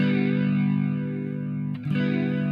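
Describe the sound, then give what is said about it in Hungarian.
A sustained, heavily distorted electric guitar chord rings out loud and thick, with a brief scrape or shift near the end before the buzzing tone resumes. No one speaks. “Aha, bocs, kénytelen vagyok bele, bele gitározni.”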